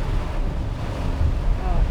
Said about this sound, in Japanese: これ聞こえんのかな雨の音がすごいんだけど聞こえてなかったらボツだなちゃんと取れてなかったら。